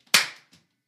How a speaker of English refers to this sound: You never slapped me before